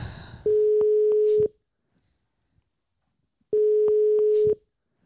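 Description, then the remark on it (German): Two long, steady ringback tones on a phone line as a call is being placed, each about a second long and separated by a pause of about two seconds, heard on their own with no talking. “Paulsen 5, den rufen wir jetzt an.”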